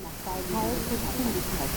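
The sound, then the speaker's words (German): Steady tape hiss from a Grundig 458b test tape cassette, with its quiet passages amplified, fills the background while a faint, ghostly echo of a voice murmurs beneath it, the words indistinct, like print-through bleeding from another layer of tape. “Es klingt wie ein Echo der Stimme in der Stille des Rauschens des Bandes.”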